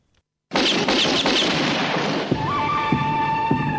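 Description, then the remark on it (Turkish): Western-movie gunshot effects: a burst of sharp shots, then several more loud cracks at a slower pace, each followed by a ringing, whining tone like a ricochet, with no talking. “beraberinde o filmde kullanılan özel silah e, ses efektleriyle beraber olsun.”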